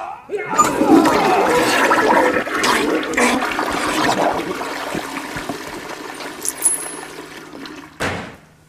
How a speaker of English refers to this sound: How about courtesy flush over there?